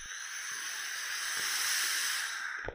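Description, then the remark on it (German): A vape being drawn on and exhaled: a steady, airy hiss that lasts almost three seconds, swelling slightly in the middle and ending with a soft breathy puff. No one speaks. “Ähm, und darauf muss ich jetzt erstmal einen Zug nehmen hier.”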